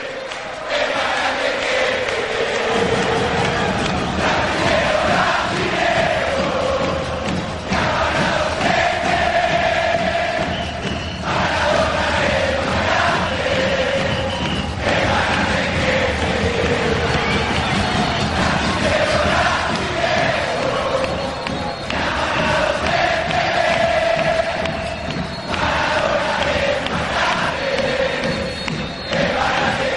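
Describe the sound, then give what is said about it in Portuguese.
A large crowd of Argentine football fans chants in unison in the stands, a chant about Brazilians: a loud, continuous rhythmic song with steady pulsing beats and massed voices rising and falling throughout. “Esse, e o super clássico das arquibancadas argentinas para falar de brasileiro.”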